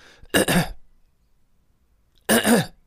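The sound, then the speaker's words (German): A voice imitates a woman's constant throat clearing, two short, rasping bursts separated by a pause of about a second and a half, fairly loud, with no talking. “Ähm, und seine Frau fiel mir erstmal dadurch auf, dass sie sich dauernd geräuspert hat.”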